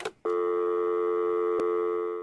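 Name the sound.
telephone dial tone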